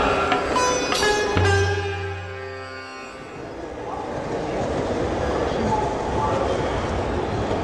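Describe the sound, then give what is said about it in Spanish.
The Orient Express train pulls into a station in Tokyo, Kanto region, Japan: high squealing brake tones and a deep rumbling hum for a couple of seconds, then a steady wash of carriage noise with faint, indistinct voices. “como habrán podido escuchar por los altavoces del Oriente Express, en esta oportunidad el tren cruzó el océano para llegar al nuevo destino, a la ciudad de Tokio.”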